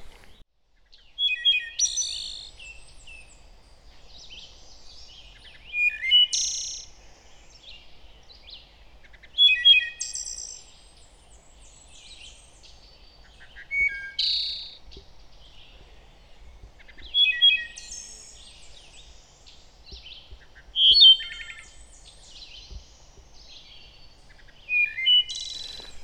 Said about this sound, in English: Another one of my favorites, a bird that is quite common out here on the Appalachian Trail that I've heard singing quite a bit is the wood thrush.